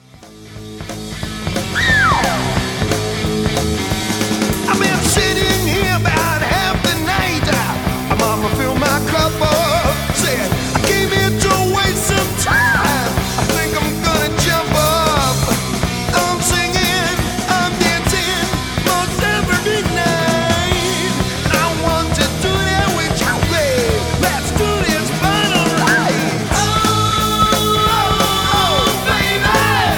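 A loud hard rock track kicks in after a brief quiet moment and drives on steadily, dense guitars and drums with bending, wailing lead lines riding on top, no talking.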